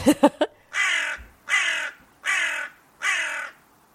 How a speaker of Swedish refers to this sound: Och så är det en kråka som bara... Ah!